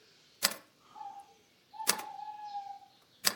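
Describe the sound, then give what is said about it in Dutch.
A tawny owl calls in a city centre, seemingly from a bank building: a short hoot and then a long, wavering hoot, interrupted by a few sharp, loud clicks. “Is dat een uil? Dat is een bosuil. Die roept nu al een paar dagen.”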